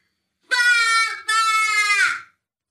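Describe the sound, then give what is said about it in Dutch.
A toddler yells "papa" at full volume, two drawn-out, strained syllables with a tiny break between them, loud, with nothing else around. “Het, woord papa mhm. keihard roepen.”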